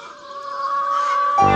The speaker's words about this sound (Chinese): 鸡舍里咕咕咕的吵个不停，突然间安静了下来，所有的母鸡望向门口。